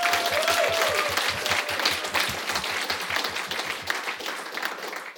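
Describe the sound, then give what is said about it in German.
An audience applauds steadily for about five seconds as a guest speaker, managing director of a PR agency, is introduced: a dense, even wash of many hands clapping at a consistent loudness, with a faint low rhythmic thump and a brief whistle-like tone early on. “Also einmal Applaus für Ruben. Applaus”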